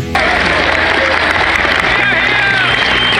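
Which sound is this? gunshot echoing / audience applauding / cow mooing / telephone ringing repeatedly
audience applauding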